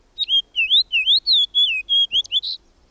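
A fox sparrow sings a bright, rapid run of clear whistled notes, slurred up and down in quick succession for about two and a half seconds, loud with no voices.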